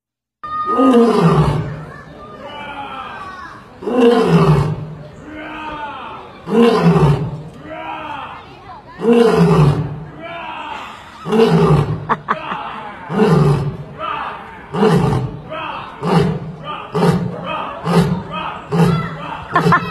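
A lion roars back and forth with a tourist imitating it. Loud grunting roars trade turns, slow at first, then quickening into rapid short bursts toward the end.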